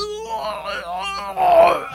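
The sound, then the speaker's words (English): A young Indian man cries out in pain, a drawn-out, wavering wail and groan that swells louder and more strained toward the end of the two seconds, with no words spoken. “The confrontation, which took no more than a minute or two outwardly, yet inwardly seemed to last hours, ended with the Indian suddenly screaming in pain,”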